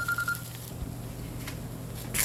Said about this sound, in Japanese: あ電話かかってきちゃったこれ0593ってどこちょっと電話出ちゃいますね